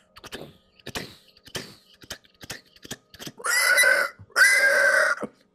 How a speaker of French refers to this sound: un gigantesque porc qui fonce vers vous. Un peu près du sanglier, mais beaucoup plus près du cochon domestiqué de ferme. Mais là, il a comme été grossi, là, gigantesque, quasiment gros comme une remise en soi, ou presque comme le poulailler.